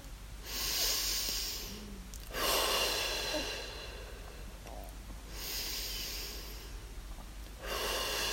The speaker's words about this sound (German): Und dann atme wieder ein paar Mal tief ein und aus.